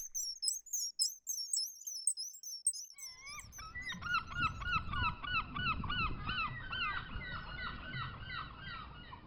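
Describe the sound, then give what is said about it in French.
Rapid, high-pitched bird chirps repeat for a few seconds, then give way to a loud, dense flock of honking, goose-like calls that overlap continuously over a rumbling background. “Lorsque le chironomide aperçut le père, il se transforma en oiseau et quitta l'Europe pour rejoindre l'Afrique.”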